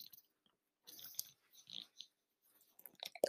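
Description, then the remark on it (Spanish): A dog licks and kisses a woman: wet, smacking, slurping bursts come in irregular clusters with brief pauses, growing busier near the end. No one speaks. “perdón, estoy siendo besada por un perro bello.”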